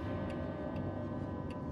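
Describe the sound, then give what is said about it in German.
An old grandfather clock in a living room ticks softly, three crisp, evenly paced clicks rising over a steady low background hum, with no voices. “Aus dem Wohnzimmer kann sie das schwere, dumpfe Gongen der alten Standuhr hören.”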